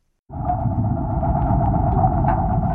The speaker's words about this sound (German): So klingt es, wenn unter Wasser gemäht wird. Beziehungsweise eigentlich wird mit der Sense das Wasserkraut abgesäbelt. 15 Klingen, jede 60 cm lang, fast 20 cm breit, aus mehrfach gehärtetem Waffenstahl, hängen dazu an einer fast 18 Meter langen Kette